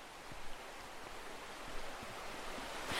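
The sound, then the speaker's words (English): The River Barle flows with a steady, continuous rushing hiss, fairly even in loudness, swelling slightly near the end, heard while walking alongside it. No voices are heard. “So we're just walking alongside the River Barle, and we saw this kind of rope bridge.”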